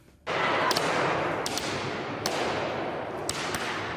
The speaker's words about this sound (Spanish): A martillazos contra el cristal que recubre la obra de arte La Venus del Espejo de Velázquez en la National Gallery de Londres. Después de unos cuantos golpes, los dos activistas han soltado las herramientas y han lanzado su proclama.